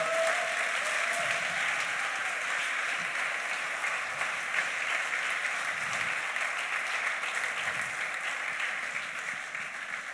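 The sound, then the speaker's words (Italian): Sustained applause for the Lord from a large audience, a dense steady wash of clapping hands that holds at an even, loud level for the full ten seconds without pausing. “Vogliamo fare un applauso al Signore?”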